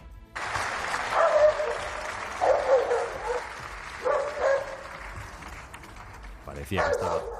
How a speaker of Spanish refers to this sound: En ese debate en Estrasburgo se ha colado el ladrido de un perro, agrandando la leyenda del perro Sánchez.